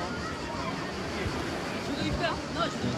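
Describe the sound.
Busy, crowded beach ambience: a steady wash of surf and wind fills the background while several voices chatter indistinctly.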